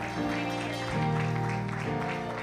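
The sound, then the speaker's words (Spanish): An audience at a church service claps steadily in a dense, continuous patter, applauding God as the King of Glory, mixed with sustained keyboard or organ chords that shift pitch partway through. No one speaks. “Un aplauso fuerte al Rey de Gloria. Apláudale a Él, apláudale a Él.”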